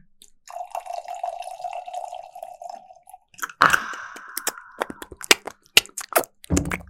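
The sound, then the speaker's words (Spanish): Tequila is poured steadily into a glass for about three seconds with a smooth, ringing pitch, followed by a sharp clink, a brief second trickle and scattered glassy clicks and taps. No one speaks. “Claro, le faltó un poco de gasolina a este. Le falta algo. Mm, ah, sírvame un poco, ¿no?”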